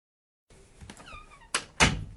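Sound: door slammed shut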